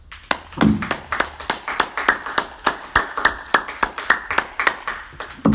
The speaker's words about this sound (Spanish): Demos otro fuerte aplauso al Señor una vez más. Gloria a Dios.